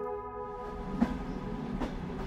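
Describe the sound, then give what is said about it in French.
A passenger train running between Manchester and London rumbles steadily along the rails, a low continuous drone with sustained tonal hum and a couple of sharp clacks from the wheels, without any voices. “Le train qui relie Manchester à Londres a pris du retard.”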